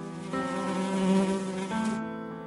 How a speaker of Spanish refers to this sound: Ahí están las moscas nacidas de la compasión, las moscas de la misericordia.